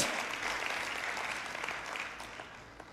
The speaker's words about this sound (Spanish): Dese un fuerte aplauso.